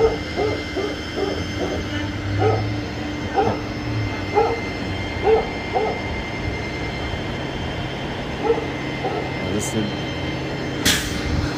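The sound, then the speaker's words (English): An old dog barks repeatedly in short, uneven bursts over a loud, busy background with steady rumbling noise and faint murmuring voices. “that dog's funny.”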